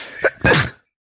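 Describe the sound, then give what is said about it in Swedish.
A single loud sneeze: a quick sharp intake of breath followed by a forceful, breathy burst that cuts off abruptly into silence. “Prosit.”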